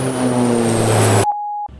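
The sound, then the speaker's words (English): A steady, loud airplane engine drone fills the cabin with a low hum, then cuts off abruptly, followed by a single clear electronic beep tone before quieter background noise returns. “Uh, and my partner told me I should specify whether I'm on the plane or whether I'm being hit by a plane.”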